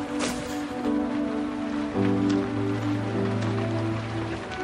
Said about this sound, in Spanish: ¿Por qué esta carrera? Así bajo la lluvia, castigados por el viento.